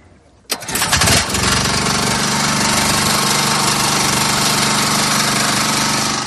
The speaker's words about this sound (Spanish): Hemos arrancado ya el generador.